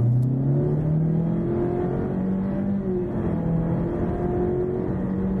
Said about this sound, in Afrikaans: Die outomatiese CVT skep sewe kunsmatige ratte wanneer jy vet gee. Hy het darmspane agter die stuur waarmee jy self 'n rat kan kies en 'n sportmodus wat die toere hoor.